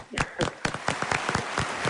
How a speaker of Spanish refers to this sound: una ovación para ti, una ovación para el Celta, venga, vamos.